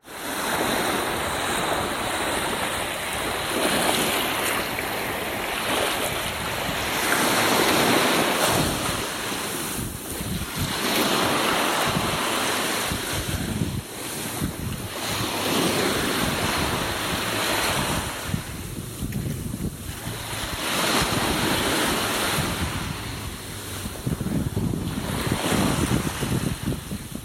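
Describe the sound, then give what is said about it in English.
Sea waves splash and wash onto a shore as the sun goes down, in steady, broad surges, with gusty wind noise buffeting the microphone throughout; no voices, just continuous loud surf. “The waves came splashing onto shore,”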